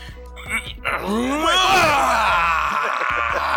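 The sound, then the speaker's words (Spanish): A person imitates the straining groans of intimidating muscular men at a gym: a loud, drawn-out vocal strain that rises and falls in pitch and holds for a couple of seconds, preceded by a few short effortful sounds. “Y están allí. ¡Ah! ¡Ah! ¡Ah! Haciendo ruido.”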